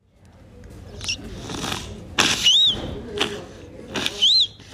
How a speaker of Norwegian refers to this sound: Dette er lyden av den fem måneder gamle babyen